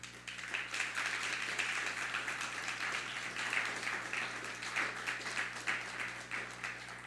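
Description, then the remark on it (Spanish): An audience applauds steadily in praise of God (the Eternal), many hands clapping in a dense, continuous wash that stays loud and even for several seconds, with faint voices mixed in. “Entonces, eh, dale un fuerte aplauso por eso al Eterno.”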